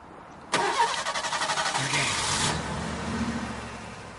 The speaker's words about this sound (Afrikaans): Ja, sy, die enjin kan loop. OK, sit af.